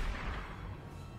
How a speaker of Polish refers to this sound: Całą kanonadę. Jezus Maria, co to się dzieje? To jest jednak wojna.